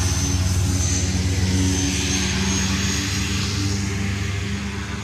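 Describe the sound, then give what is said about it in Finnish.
A Turbo Porter turboprop airplane drones past, its steady engine roar and propeller hum loud and continuous, with a broad whooshing wash that shifts slightly as it moves by. No one speaks. “Odotetaan vähän aikaa, kun turboportteri menee sinne.”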